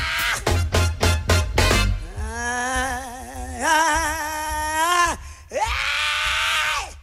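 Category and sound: crowd, crowd yelling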